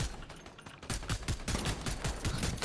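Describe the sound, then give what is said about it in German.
Rapid bursts of video game gunfire crackle continuously, sharp repeated shots overlapping in a dense, loud barrage with no voices. “Digga, er trifft jeden Schuss, aber auch nur Headshots.”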